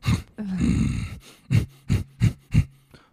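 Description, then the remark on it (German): A person vocally imitates a rhinoceros snorting: a long throaty rasping exhale, then four short, forceful nasal snorts in a steady rhythm, fairly loud, with no words. “Die schnaufen, die trampeln.”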